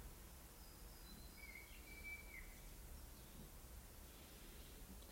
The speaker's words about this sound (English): just listen to the birds again. Bring yourself back.